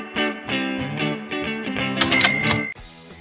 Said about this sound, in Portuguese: Solta a vinheta.